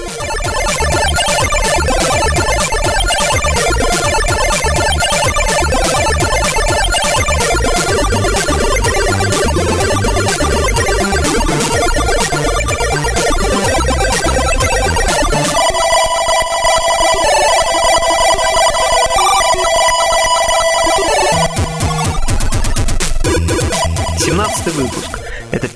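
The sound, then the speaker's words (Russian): Loud, continuous ZX Spectrum demo chiptune music with buzzy square-wave melodies and rapid arpeggios, briefly shifting into sustained, high beeping tones before the busy texture returns. No one speaks. “Семнадцатый выпуск подкаста о чиповой музыке на zx-spectrum”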